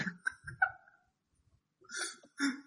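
A dog makes noise outside: a few short whining yelps, a brief pause, then several rougher, bark-like bursts. No one speaks.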